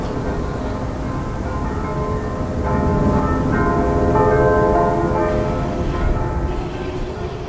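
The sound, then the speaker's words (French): Orthodox church bells peal continuously in overlapping, resonant strikes, their ringing tones layered and sustained, swelling slightly louder midway with a steady background rumble and no voices; the bells ring at 8 a.m. and 7 p.m. “C'est le son de, des cloches de l'église orthodoxe qui sonne à 8h du matin et à 7h le soir.”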